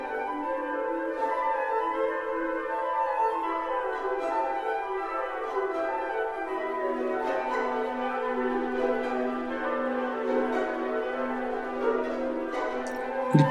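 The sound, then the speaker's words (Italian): Sustained orchestral music with warm strings and winds, punctuated by three bright, ringing triangle strikes that sparkle above the steady texture at moderate volume. “passaggio da ruscello a fiume è sottolineato da tre rintocchi di triangolo che anticipano il tema principale della Moldava”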